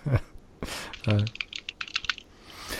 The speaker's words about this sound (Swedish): Men vad fan, ska du börja fippla med tangentbord och grejer där nu alltså? Oj då, låter ja, det högt? Nej, inte högt ja.